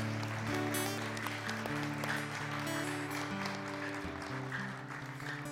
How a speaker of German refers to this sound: Gebt ihnen einen kräftigen Applaus.